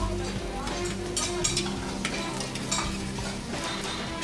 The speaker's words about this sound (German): Erstmal müssen wir den Topf einmal anmachen. Wir starten mit der Butter. Dann kommen die Schalotten dabei.